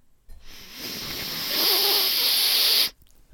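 A single long, strained sniff through a blocked left nostril, congested for days: a harsh, airy hiss lasting a few seconds, with a faint whistling wheeze as the breath squeezes through.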